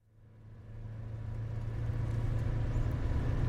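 A bus drives along the road with a low, steady engine rumble that swells from quiet to a sustained drone, road noise hissing over it, with no voices.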